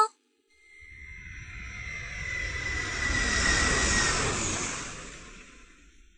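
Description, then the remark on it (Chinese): An airplane rumbles past, a broad roaring drone with a steady whining tone on top, swelling gradually to a peak and then easing off as it fades. “飞机轰隆轰隆，小猫们喵喵的叫着。”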